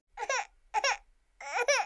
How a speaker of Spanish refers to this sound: En una noche de domingo, un estudiante universitario está intentando adelantar los trabajos de la semana, cuando de repente sus actividades son interrumpidas por un sonido agudo, repentino, inesperado, del llanto de un bebé.